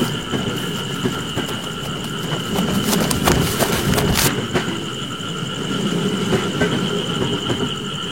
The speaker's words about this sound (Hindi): अभय train में चढ़ने की बहुत कोशिश करता है लेकिन तब तक ट्रेन की रफ्तार बहुत ज़्यादा हो चुकी थी